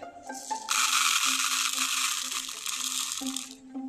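A dense, steady hiss of rain suddenly starts falling in a forest, holds fairly loud for about three seconds, then drops away, with a low sustained musical tone underneath and no voices.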